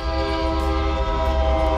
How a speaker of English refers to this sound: If you hear a train pass, this is just terrific timing. You can tell I'm doing this on my drive back home.